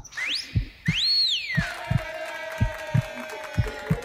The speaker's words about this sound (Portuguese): estou me sentindo muito melhor ainda, acompanhado desse meu coração pulsante, que está muito feliz hoje